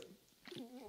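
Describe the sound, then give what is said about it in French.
A dog named Jeeves lets out a brief, high, tonal whine in an office in the second half, fairly quiet, with soft rustling before it and no one talking. “et D'ailleurs, il est en train de faire du bruit.”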